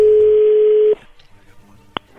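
A steady, loud single-pitch telephone tone holds for about a second as the call connects, then cuts off to faint line hiss with one short click.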